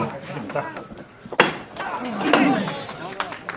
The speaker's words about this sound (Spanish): Cruje la madera, suena el martillo